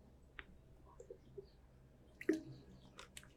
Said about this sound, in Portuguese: Deixa eu tomar uma água aqui, peraí.